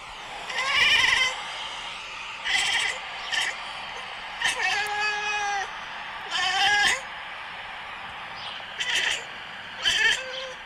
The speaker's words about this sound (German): versucht Findus, unsere Katze, Vögel zwitschern nachzumachen